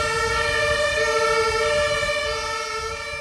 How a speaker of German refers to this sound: Wollen wir warten, bis der Krankenwagen fährt? Ich weiß gar ja. nicht, ob man den so gut im Podcast hört, aber.